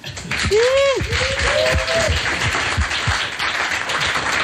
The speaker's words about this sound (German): Einen Applaus bitte.